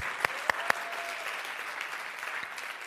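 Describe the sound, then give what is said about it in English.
A room full of people claps steadily for the worship, a dense wash of overlapping hand claps with a few sharper, louder claps standing out near the start, sustained at a moderate level throughout. “You get applause for that?”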